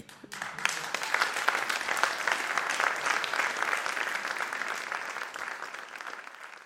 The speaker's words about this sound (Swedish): En applåd för mig.